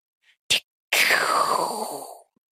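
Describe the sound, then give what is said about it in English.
A voice imitates a gun going off: a short sharp click, then a long breathy hissing blast that trails off over about a second, with no words spoken. “It's the sound of the the gun when it yeah, when it goes off.”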